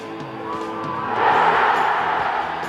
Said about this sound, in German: Riesiger Jubel.